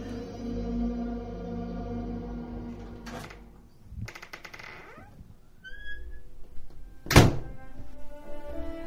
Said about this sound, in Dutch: En als de kasteelpoort dan achter je dichtvalt met een klap, weergalmt het in de gangen en weet je plots niet meer zeker in welke tijd we ook alweer leven.